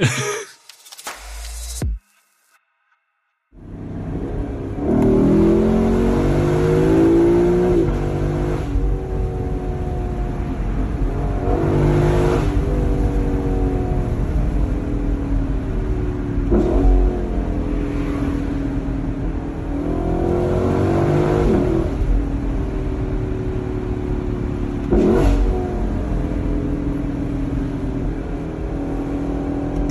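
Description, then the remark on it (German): A sports car engine revs hard and high, climbing through the gears to over 7000 rpm with rising harmonic sweeps, then drops sharply on several downshifts. Loud, sustained engine roar with no talking. “dann vielleicht noch im manuellen Modus des Getriebes und du merkst, wie dieser Motor hochdreht und richtig willig bis über 7000, dann dieser Sound dazu und dann die Downshifts.”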